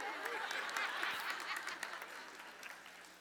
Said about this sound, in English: Hear the rain? God agrees, okay?